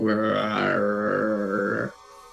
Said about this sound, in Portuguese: Você consegue escutar que parece ressoar um barulho maior vindo desse corredor abaixo de vocês. Né? E esse barulho é, de novo, barulho de. É, esse barulho de zumbis, né?